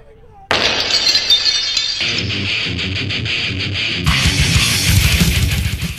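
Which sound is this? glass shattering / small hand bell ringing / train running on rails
glass shattering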